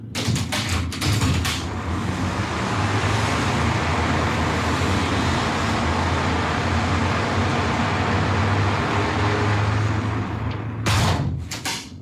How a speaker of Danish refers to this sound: Det, nu er det reallyd af lyden af biler ude fra gaden, hørt igennem et vindue. Der er lukket. Der er lukket. Og nu åbner vi vinduet.